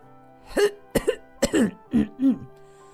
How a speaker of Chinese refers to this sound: 流浪猪从包袱里搜出一顶皇冠，戴在头上。他清了清嗓子。